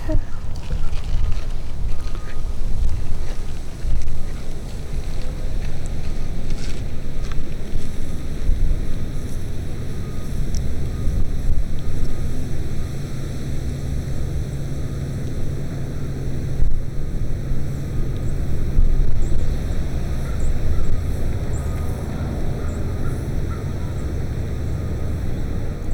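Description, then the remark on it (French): Steady wind rumbles and buffets outdoors in a city botanical garden, a dense low roar holding at an even level throughout, with a faint continuous high-pitched hum in the background. “la ville qui agit avec les cigales, qui agit avec le vent, qui agit avec les oiseaux, qui agit avec le sol.”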